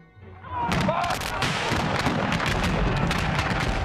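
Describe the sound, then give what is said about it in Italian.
Heavy gunfire of a violent firefight between Union and Confederate troops at Seminary Ridge: a dense, unbroken barrage of overlapping shots and deep booms that stays loud for the whole stretch after a brief quieter start. “Circondati dal nemico, i nordisti ripiegarono sulla cresta del seminario, riconquistarono alcune posizioni, ma vennero coinvolti in un violento scontro a fuoco.”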